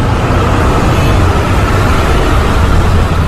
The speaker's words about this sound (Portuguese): A poluição sonora é outro componente significativo que merece ser levado em conta. O ruído constante das buzinas, dos freios e dos motores podem levar a um estado de alerta constante abalando o sono e aumentando os níveis de estresse.